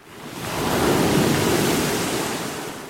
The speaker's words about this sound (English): We see a stretch of ocean with no land in sight. The waves are choppy the sky is dark, though it's day. The clouds are heavy, not yet spilling a storm.